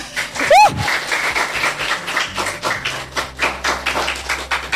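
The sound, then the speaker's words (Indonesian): Hand clapping from several people, a dense, irregular patter of sharp claps running steadily throughout, with a brief rising-and-falling whistle-like cry near the start. “wow boleh tepuk tangan dulu my lady dong”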